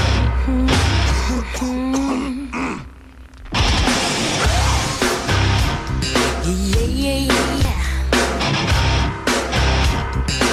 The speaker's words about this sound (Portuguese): Eu vou começar com uma música que começa mais ou menos assim.